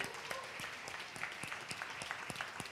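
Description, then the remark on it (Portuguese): An audience claps for Jesus during a church child's consecration, in a steady, dense burst of applause. Sharp individual claps stand out over a continuous crackling wash of hands for the whole stretch. “Vamos aplaudir Jesus com alegria.”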